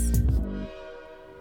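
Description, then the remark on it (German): A loud train horn blast opens with a heavy, rumbling burst, then its steady tone lingers and slowly fades out over about a second. No voices are present. “sag mal, wann geht denn eigentlich der Zug nach Fun City? Du, der fährt in Kürze.”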